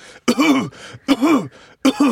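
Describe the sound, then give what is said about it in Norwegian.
Three deep, deliberate voiced coughs in a steady rhythm, each a forceful guttural burst with short pauses between, fairly loud with no talking; deep coughing as advised for someone having a heart attack. “Det er om å gjøre du kan faktisk, Hvis du får hjerteinfarkt, så skal du hoste dypt.”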